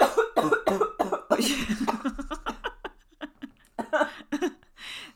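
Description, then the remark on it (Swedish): A fit of repeated harsh coughing after someone inhaled a small oat cake crumb, several bursts in quick succession with gasping breaths and throat clearing between them, some sounding half like choked laughter. “Ja, nu satte hon också en liksom kaksmula i oh, halsen här.”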